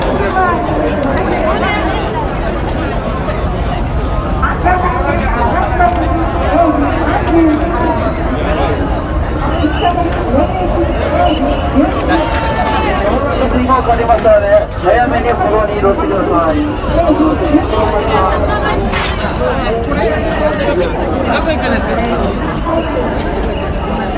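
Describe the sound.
A dense outdoor crowd in Shibuya murmurs continuously while an amplified voice makes Japanese public-address announcements about the last JR Yamanote Line trains and asks passers-by to keep moving without stopping, steady and loud throughout with occasional footsteps and bustle.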